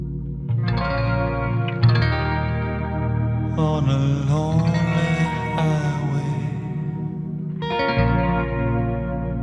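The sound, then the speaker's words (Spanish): A moody late-1980s rock song, from a 1987 album, plays steadily, with shimmering, chorus-drenched electric guitar ringing out over a bass line and heavy reverb. The music sounds full and fairly loud, with no voices. “Y eso es lo que vais a escuchar en Quack and Roll. …, ….”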